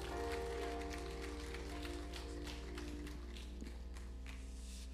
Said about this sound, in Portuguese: Será que você pode mais uma vez aplaudir aquele que é digno de receber louvor, adoração, exaltação?